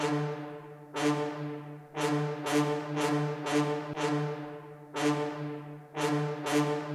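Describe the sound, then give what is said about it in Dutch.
Sampled trombones, orchestral samples loaded in a computer, play alone, sounding a series of loud, sustained low brass chords with bright, punchy attacks, each note swelling and fading in a steady rhythm. No voices are heard. “bij dit stuk hoor je deze trombones.”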